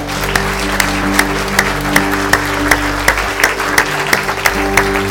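An audience applauds the Lord together after a prayer, a steady, rhythmic clap over a dense wash of hands, with sustained low tones humming underneath throughout.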